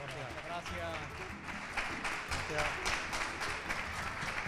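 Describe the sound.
An audience applauds in a dense, steady wash of many hands clapping, holding at an even level for several seconds while a voice talks over it, welcoming a visiting group during a radio programme broadcast from the Museo de Andalucía.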